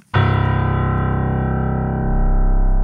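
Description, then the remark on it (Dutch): A single very deep piano note, the lowest C, struck once and held, ringing loud and steady with a buzzy, rich tone and no voices around it. “Ter vergelijking, zo klinkt die do op een piano.”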